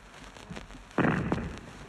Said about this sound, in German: Zweite Feuersalve. Die Granaten brausen nach vorn und schlagen gegen die gegenüberliegende Bergwand. Eben war ein Schuss, der hinter uns lag.